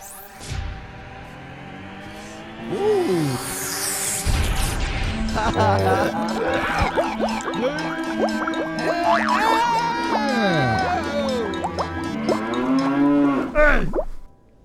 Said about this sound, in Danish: Skal vi høre vores det, jingle? ja, eller? okay, jamen, det tænker jeg også. Vi, vi skal lige have... Ja, sådan. Her kommer jeres jingle.